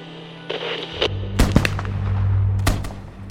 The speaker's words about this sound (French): Les vichistes tirent par les fenêtres de l'Hôtel de France. Au milieu du tumulte provoqué par les coups de feu